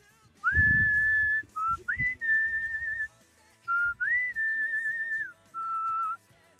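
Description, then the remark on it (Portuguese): A person whistles the melody of an anime opening theme, holding long clear notes in short phrases with small pitch slides between them, fairly loud and with no talking. “É, eu sou um assoviador profissional.”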